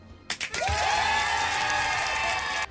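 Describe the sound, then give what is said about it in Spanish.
An audience bursts into steady applause that lasts just over two seconds, a dense wash of clapping with a sustained cheer or whoop riding over it before cutting off abruptly. “No, qué abrazo. Un aplauso.”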